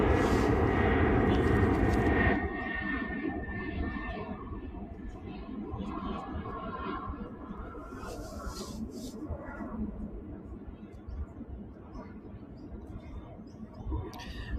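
A steady, broad roar like an airplane passing overhead, loud at first and then settling into a sustained rumbling drone that fills the whole clip, with no talking.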